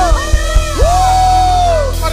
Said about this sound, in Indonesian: Lebih lagi kita berikan tepuk tangan sorak-sorai bagi Allah kita. Bisa berikan tepuk tangan sorak-sorai, sorakan haleluya